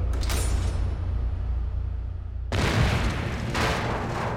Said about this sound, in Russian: Где-то вдалеке послышался грохот небольшого взрыва.